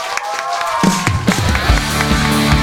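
A live audience applauds in a steady, dense wash of clapping, and a few seconds in, loud music swells up underneath it.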